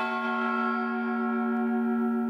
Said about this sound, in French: Pile sur le gong